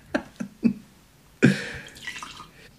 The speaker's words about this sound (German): da werde ich jetzt einen Schluck nehmen, nicht mehr, denn die ist ja für uns beide